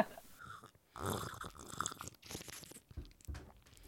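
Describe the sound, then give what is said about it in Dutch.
Slurping of port wine from a glass: a few loud, wet, hissing sips drawn in through the lips, with short pauses between them and no talking. “Ja, we zitten er as we speak van eh, te slurpen.”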